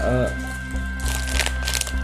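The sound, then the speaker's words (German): Crinkly rustling of a plastic bag of strawberry candy strings in a few quick bursts, preceded by a brief vocal sound, with a low steady hum underneath. “ich raschel da mal was vor, wenn ich darf, zu, zur Einleitung.”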